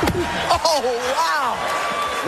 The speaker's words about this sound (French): Voilà, énorme stupeur à la cérémonie des Oscars hier soir. Ce que vous entendez, c'est une gifle donnée par Will Smith au comédien Chris Rock sur scène.